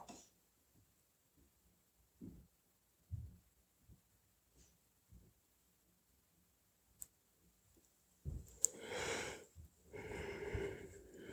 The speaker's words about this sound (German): Ein Gähnen, Schritt fünf.